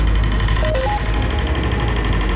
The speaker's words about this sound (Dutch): Wij zijn vandaag neergestreken in het hart van Rotterdam. Op de blaak waar het verkeer om ons heen raast.